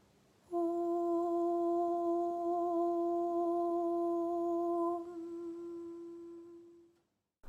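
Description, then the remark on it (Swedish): A single long, steady 'Om' chanted aloud at a higher pitch as a tone for the listener to follow, held alone for about six seconds before softening and fading out at the end. “Det är ljudet av orm och i en högre tonart.”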